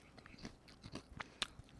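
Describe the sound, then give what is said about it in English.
Crunching on crispy fried churro snack strips shaped like long rectangles, a quick series of sharp, brittle bites and chews with one especially loud crack near the end, no talking. “And, and it has a good crunch. I like that it's a strip.”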